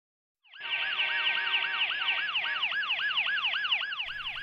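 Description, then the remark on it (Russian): A loud ambulance siren heard over a phone line wails, rising and falling in a rapid repeating yelp with strong harmonics, starting abruptly and continuing steadily throughout with faint road noise underneath. “по автомобильным гудкам и сирене скорой помощи на другом конце трубки казалось, что сын находится где-то посреди большой дороги.”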